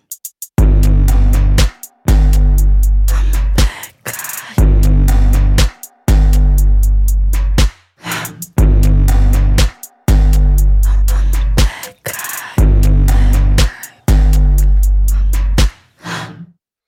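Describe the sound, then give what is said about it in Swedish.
A loud pop song with vocals plays on its own, in punchy repeating bursts with heavy bass and short breaks between phrases. “vad är detta för väskmusik jag hör?”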